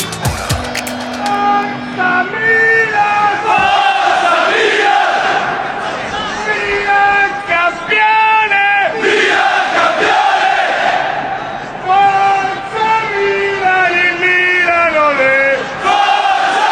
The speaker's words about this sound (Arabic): الصدارة تليق بك هكذا يردد جماهير الميلان بعد كل انتصار لفريقهم